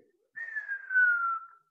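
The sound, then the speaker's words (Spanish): A person whistles a single steady tone that slowly glides downward in pitch for about a second, imitating the falling whistle of a dropping bomb. It is clear, with no talking. “Le, conocíamos, le empezamos a conocer el silbido a las bombas.”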